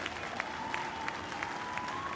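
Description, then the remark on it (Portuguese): An audience applauds steadily a presentation of Microsoft's Windows operating system, a dense wash of many hands clapping with some sharper claps standing out in a loose rhythm, accompanied by a faint steady tone underneath. “A plateia ama a apresentação.”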